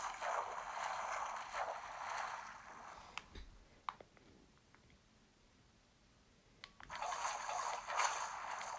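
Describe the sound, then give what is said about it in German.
Video game water splashes and streams steadily as it is placed, then cuts off abruptly when a too-fast click scoops the water straight back up, leaving a few sharp clicks in near silence before the rushing water sound starts up again. “Ich klicke manchmal zu schnell, so dass ich das Wasser direkt wieder mitnehme.”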